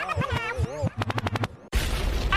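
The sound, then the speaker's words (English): Gunshot sound effect used in a DJ set: after a sung vocal snippet, a rapid string of about seven sharp shots rattles off, then a sudden loud blast of noise erupts and sustains to the end. “Record means rewind, a gunshot means forward.”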